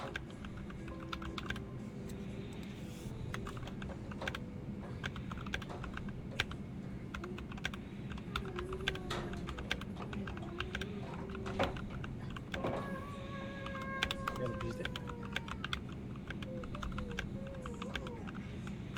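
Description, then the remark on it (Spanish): Steady, rapid typing on an aluminium, top-mount NK65 mechanical keyboard with MT3 keycaps and stock Kiwi switches, sharp, clacky keystrokes in dense bursts over a low background hum, with no talking. “Bien, ahora vamos a escuchar MT3 en el NK65 con Kiwis,”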